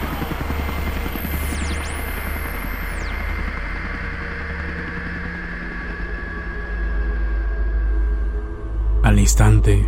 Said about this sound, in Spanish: No pasaron más de 10 minutos cuando arribó un helicóptero completamente de color negro a nuestra posición.